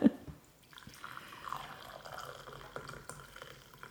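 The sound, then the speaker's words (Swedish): Coffee being poured into a cup, a steady trickling stream after a brief clink at the start, with the pitch subtly shifting as the cup fills. “Så jag häller upp.”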